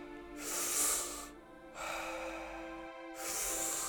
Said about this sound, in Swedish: Djupa andetag. In med lugnet, ut med stressen. Ingen paus mellan andetagen. In, ut. In, ut. In, ut. In i magen.